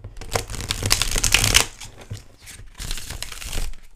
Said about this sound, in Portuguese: Pronto, vou agora então tirar uma carta tarot para Mensagem do episódio de hoje.